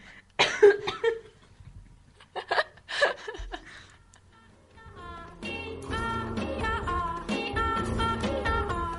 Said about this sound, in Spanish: Tose, tose, salud.